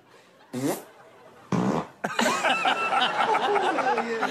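Two short, loud fart noises, one after another, then a longer run of sputtering mixed with laughter and giggling voices.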